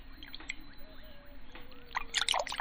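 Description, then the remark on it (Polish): Tea poured into a cup, a bubbly trickle with splashy, gurgling bursts that grow louder toward the end; quiet background hum, no talking. “mojej herbaty oczywiście.”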